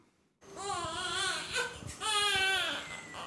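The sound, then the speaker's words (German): A tiny premature baby, lying on its father's chest in a premature-infant ward, its body full of tubes, cries in two thin, wavering wails, whimpering and breaking between them, with no one talking. “So zerbrechlich und hilflos wirkt das Baby auf der Brust seines Vaters.”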